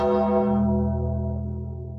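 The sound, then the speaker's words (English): A single loud bell strike with rich, sustained harmonic overtones that slowly decay and ring on for the full two seconds, with no voices present. “Ring the bell.”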